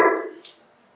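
A dog lets out a single short whimper or bark, a tonal yelp that fades quickly, followed by a faint high squeak and then near silence.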